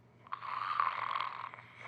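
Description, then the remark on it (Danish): A single long, raspy snore from someone who is sleeping upstairs, drawn out for over a second at moderate loudness with no one talking, ending in a soft trailing breath. “Kan I høre det? det er …, der snorker.”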